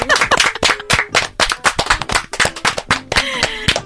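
An audience applauds the Istanbul City Council (İstanbul Kent Konseyi) and an informal-education children's project in Istanbul, with loud, steady clapping that fills the whole stretch. The sharp claps blend into a continuous patter without any talking over it.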